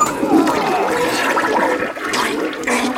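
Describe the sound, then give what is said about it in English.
A toilet flushes, a loud continuous rush of swirling water that fills the whole few seconds with gurgling, hissing turbulence. “How about a courtesy flush over there?”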